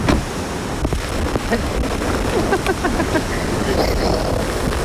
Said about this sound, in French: C'est la tempête là.